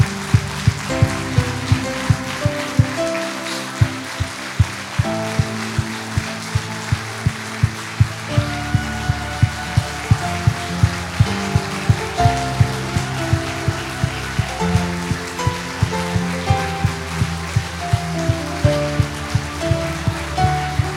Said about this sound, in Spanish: Vamos, denle un fuerte aplauso al Señor. Vamos, alguien que glorifica al Señor. Vamos, póngase en pie y siga aplaudiendo al Señor. Vamos, siga aplaudiendo como si estuviera en la orilla del horno de fuego.